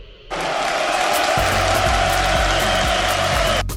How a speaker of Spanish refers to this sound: Ahí está su aplauso y su saludo.